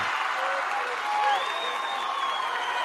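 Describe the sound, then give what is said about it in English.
An excited crowd at a 2-2 basketball game between Elgin and Centura cheers and claps in a steady, loud roar lasting the whole moment, with a few thin high tones rising briefly above the dense wash of voices. “Pretty much an excited crowd for a 2 2 ball game.”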